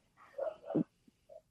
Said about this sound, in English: i'm sorry my dogs are barking that's okay, okay. we're pro dog